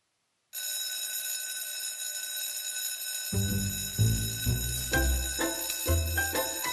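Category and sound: signal or alarm, school class bell ringing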